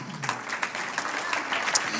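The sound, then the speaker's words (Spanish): An audience applauds for the Lord during a sermon, a dense wash of many hands clapping at once with no pauses, moderately loud and sustained throughout. “¿Cuántos dicen un aplauso al Señor?”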